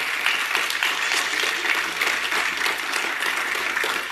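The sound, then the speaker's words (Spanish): An audience applauds the Lord in a steady, dense wash of clapping that holds at an even, fairly loud level throughout without building or fading, with no clear voices rising above it. “Para que entonces Dios, déle ese fuerte aplauso al Señor.”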